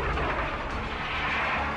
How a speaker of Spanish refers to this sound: Sigue las explosiones en el aeropuerto que podrían ser originadas, además de las bombas, por los combustibles que flotan.